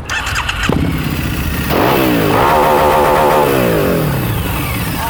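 The engine of a Harley-Davidson Muscle motorcycle, a new model with a Porsche engine of 1.2 litres and 120 horsepower, cranks briefly, then fires up with a deep rumble and revs upward, settling into a loud, throbbing idle that continues steadily to the end.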